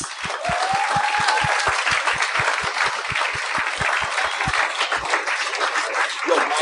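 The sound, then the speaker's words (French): Loud, sustained audience applause welcoming two guests onto a show, with a steady thumping beat pulsing underneath for most of it and a brief whistle or cheer near the start. “Mesdames et messieurs, une bonne main d'applaudissements mes invités.”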